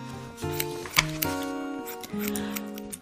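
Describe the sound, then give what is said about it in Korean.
Several crisp scissor snips as a man's hair is cut at a hair salon click at an uneven pace over a steady tonal musical background, with one sharper snip standing out near the middle. “정말 가위 소리만 들렸습니다.”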